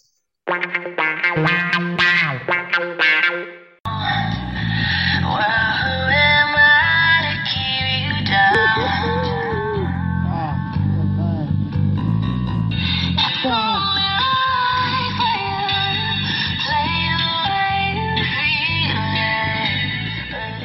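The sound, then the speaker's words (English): Loud, distorted sirens wail and overlap almost continuously in a siren battle, their pitches sliding against each other in a blaring, competing clash after a brief opening burst; no one speaks. “that to me sounds like a really good a siren battle example because a it's very loud and b it's so clear”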